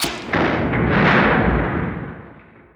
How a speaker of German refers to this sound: Und dann hört ihr ein steinernes Knacken.